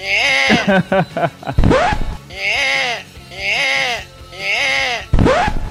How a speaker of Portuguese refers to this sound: Bota o barulho de neném.